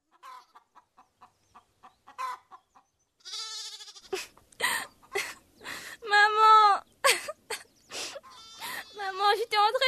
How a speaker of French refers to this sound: de jouer avec les poules et tout d'un coup elles se sont mises à voler partout.